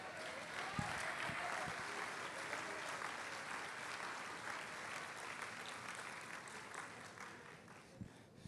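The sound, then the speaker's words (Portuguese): A church audience applauds Jesus with a steady, dense wash of clapping from many hands that holds at a fairly even level throughout before easing slightly toward the end. “Levante as suas mãos, meus irmãos, e aplauda Jesus.”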